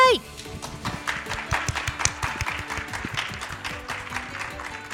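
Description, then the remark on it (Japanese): Sustained audience applause welcoming the president of Happinet, a Tokyo Stock Exchange Prime-listed entertainment trading company, as a speaker; a dense crackle of many hands clapping at a steady, even loudness for several seconds, opening with a brief trailing voice before the clapping takes over. “盛大な拍手でお迎えくださ”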